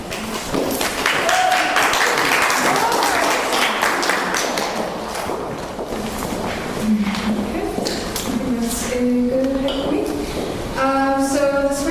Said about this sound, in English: Uh, everyone, give her a huge round of applause.